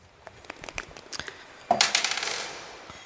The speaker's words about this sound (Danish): De er nummereret fra 1 til 6. Slå med en terning.